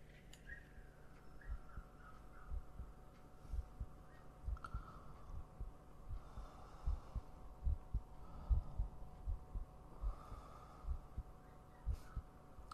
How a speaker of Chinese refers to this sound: 我的心跳很快吗？